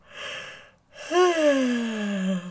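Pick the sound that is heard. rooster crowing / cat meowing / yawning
yawning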